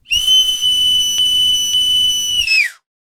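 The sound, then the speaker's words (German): A person lets out a loud, piercing, ear-splitting whistle that holds one steady shrill pitch for about two and a half seconds, then bends slightly downward as it cuts off abruptly, with no voices present. “stieß Eugen sofort einen so lauten, ohrenbetäubenden Pfiff aus”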